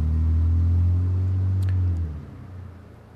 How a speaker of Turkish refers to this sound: Araba geçiyor alttan.